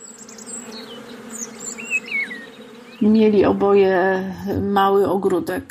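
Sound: honeybees buzzing around beehives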